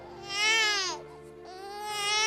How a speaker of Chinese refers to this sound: 一束阳光照进房间的时候，洪亮的哇哇声响彻了整间产房。